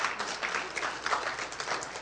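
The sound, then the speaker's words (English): A church audience claps their hands together in praise to God, a steady, dense wash of applause, many overlapping claps blending into a continuous crackling roar with no voices above it. “Y'all should have just gave God a big old hand clap praise right there.”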